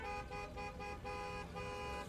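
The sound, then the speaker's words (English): Car horns honk steadily and loudly over a rumbling traffic din, several sustained blasts overlapping with brief dips, on a jammed five-lane highway by the front entrance of an apartment building. “See? Lots of cars.”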